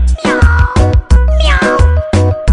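A series of loud, drawn-out cat meows in quick succession, sounding over a steady, bass-heavy musical backing with a bouncy rhythm.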